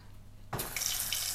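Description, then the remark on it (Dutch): After a brief quiet moment, hard, limey tap water suddenly starts gushing into a cooking pan, a steady splashing rush that continues without pause to the end. “Kalkend water erin.”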